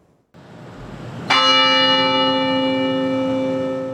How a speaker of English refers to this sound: The bell Tower tolled at 102 this afternoon to begin a campus wide moment of silence.